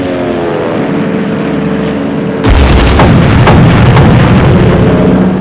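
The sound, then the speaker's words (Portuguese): A droning aircraft engine rumble gives way abruptly to a loud, dense barrage of booming explosions and sharp cracks of gunfire that continues without letup, as American aircraft bomb Japanese aircraft carriers whose decks are full of aircraft, fuel and bombs, and anti-aircraft batteries fire back. No one speaks. “Os convéses dos porta-aviões japoneses, repletos de aeronaves, combustível e bombas, se viram sob o bombardeio inimigo.”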